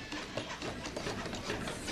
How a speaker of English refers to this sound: 64 hands building a house for the homeless.